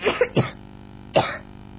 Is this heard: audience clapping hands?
no